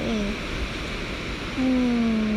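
Ocean waves breaking on a beach shore, recorded while walking by the sea, make a steady, hissing wash throughout, with a low tonal hum rising briefly at the start and again over the last second.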